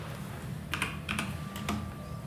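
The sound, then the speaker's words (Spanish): Several quick, light clicks of typing on a computer keyboard to look up the Premier League table, irregularly spaced in short bursts, over a low steady hum with no one talking. “Estoy tecleando para ver la tabla, pero hoy ganó el City y su juego pendiente, Entonces ya son 10 puntacos.”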